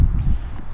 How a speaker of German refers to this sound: Äh, aber wenn man das mal genau gegeneinander schneidet, also wenn wir uns jetzt äh, die Autobahn nochmal anhören